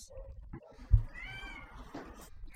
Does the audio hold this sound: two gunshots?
no